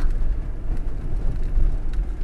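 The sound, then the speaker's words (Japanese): A chartered van rumbles steadily along an expressway through heavy rain, splashing up water, with a dense, continuous wash of road and water noise, deep and constant, and no voices. “外は豪雨チャーターしたワゴン車は水を跳ね飛ばしながら高速道路を進んだ”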